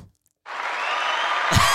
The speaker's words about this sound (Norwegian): Applaus til deg. fantastisk.